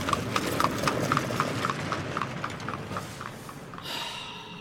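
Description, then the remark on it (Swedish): A horse-drawn cab rolls past only a metre or so away on a muddy street, hooves clip-clopping in a brisk, steady rhythm that gradually fades, with a hissing, creaky rattle of wheels rising near the end. “Droska kör förbi bara någon meter.”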